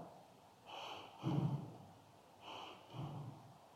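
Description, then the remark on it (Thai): Two rounds of short, forceful breaths through the nose, done as a breathing exercise of short, strong breaths like a sigh, each a sharp, noisy rush of air, with quiet pauses between and no talking. “ให้ลองศึกษาง่าย ๆ ให้รู้จักลมหายใจประเภทที่หนึ่งก่อนนะ คือลมหายใจสั้นและแรงเหมือนถอนหายใจ ลมหายใจสั้นและแรงเราอาจจะหายใจแบบนี้ ลองทดลองดู”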